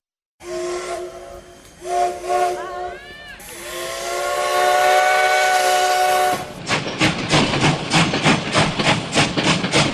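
A train sounds a loud, sustained horn in several blasts, then rolls past on the rails with a steady, rhythmic clickety-clack of wheels over the track joints. No one speaks.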